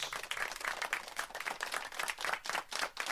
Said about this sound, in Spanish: Un aplauso para los flacos.